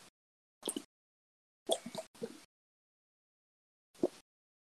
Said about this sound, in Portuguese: Peguei uma água aqui, vou me hidratar.